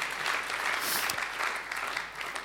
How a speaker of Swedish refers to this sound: Ja, låt den, låt den växa den där applåden som kom smygande där.